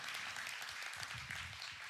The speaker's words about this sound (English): Yeah, you can clap for that.